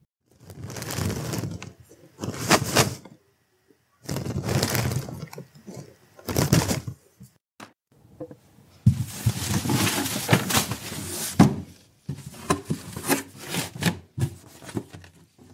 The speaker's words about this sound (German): Das kommt der Sache schon ziemlich nahe. Das ist das Geräusch, wie jemand seine Papiere in einen Karton packt.